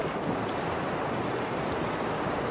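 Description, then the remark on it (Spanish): Ocean surf rushes steadily at a constant level, a dense, hissing wash of breaking waves with a low rumble beneath and no voices, with wind, at a world-famous surfing beach. “Vamos todos a agarrar nuestras tablas de surf, nos vamos a meter al agua y vamos a comenzar a practicar surfing.”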